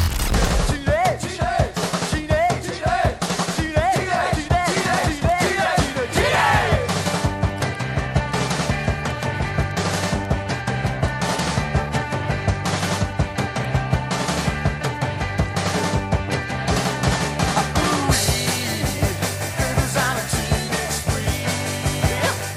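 A late-1970s band recording plays: driving drums with rapid, rattling snare fills, a stepping bass line and bright guitars, loud and dense throughout, with a brief vocal-like bit around the middle.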